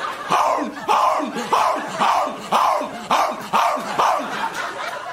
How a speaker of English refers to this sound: And then right when you think they're done, the hell's the matter with you? a dog. Barking. How do you argue with him?